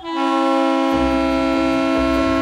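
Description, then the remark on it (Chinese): A diesel locomotive horn sounds one loud, unbroken blast with a rich, chord-like tone, steady throughout, while a deep engine rumble rises beneath it partway through. “旁边的柴油伯伯鸣了声汽笛，又把小朋友吸引过去了。”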